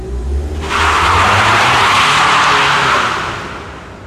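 A car engine is fired up with a low rumble, then surges into a loud, hissing roar that holds steady for a few seconds before gradually easing off.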